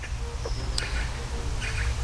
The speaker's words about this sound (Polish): Kaczka się zgadza.